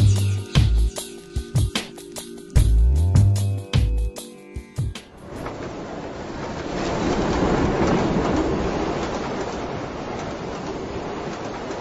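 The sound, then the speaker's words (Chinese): A train rolling along the rails at night, with loud, rhythmic clickety-clack beats at first that give way to a steady, broad rumbling roar of the moving cars. No one speaks. “我常常梦见跟你一起坐在一列在夜晚静静行驶的火车上”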